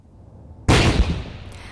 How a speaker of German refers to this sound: Eine gewaltige Explosion in einer Bank. Dann flüchten die Täter mit ihrer Beute. Die Polizei hat jetzt eine Bande geschnappt, die für Geldautomatensprengungen wie diese verantwortlich sein soll.